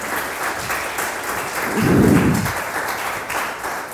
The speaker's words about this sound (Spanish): ¿Cuánto le dan un aplauso a eso al Señor por, por eso tan grandioso que hizo por nosotros?